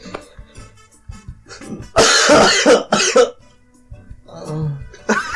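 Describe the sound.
Someone mimics a ketchup bottle squirting with their voice: two loud, harsh sputtering bursts of breath, framed by quieter murmurs and mouth sounds.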